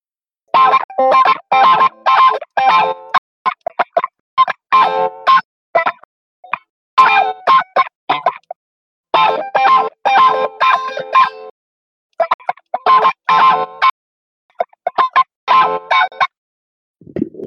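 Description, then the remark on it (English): An electric guitar run through a wah pedal and compressor plays choppy, staccato phrases of short plucked notes with a quacky, sweeping tone, fairly loud, pausing briefly between bursts. “So this is with the compressor on. Okay, yeah. All right, let's switch on the wah.”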